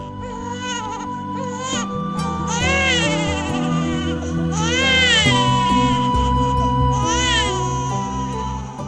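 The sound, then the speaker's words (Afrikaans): A newborn baby's first cry at birth: loud, rising-and-falling wails, three or four cries in a row, with a steady tonal hum sustained underneath and no talking. “Ek sê verwys na daai eerste skree. Die, die geboorte skree.”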